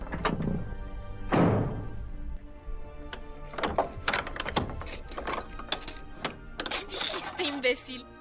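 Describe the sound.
A house door thuds shut with a heavy bang, followed by a series of sharp knocks and rattling clicks as the door is barred, with murmuring voices underneath.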